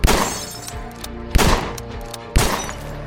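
Three loud, sharp gunshot blasts about a second apart, each followed by crackling debris and ringing, like shots fired through the wooden door and glass windows of a house.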